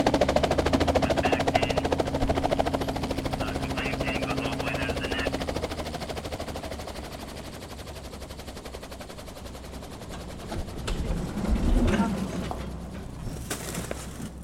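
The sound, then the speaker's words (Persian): A helicopter's rotor chops steadily overhead in a rapid, continuous thumping with a low engine drone, fairly loud throughout and swelling briefly near the end, as it flies to a remote lumber mill to take an injured person to a hospital 65 miles away. “واقعا که حضور اون هلیکوپتر تو منطقه اونا و تو اون لحظه یه معجزه بود.”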